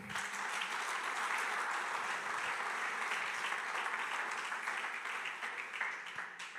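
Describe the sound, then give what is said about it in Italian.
An audience applauds itself steadily, a dense wash of many hands clapping at a constant loud level for several seconds, with no voices standing out. “Fatevi un applauso.”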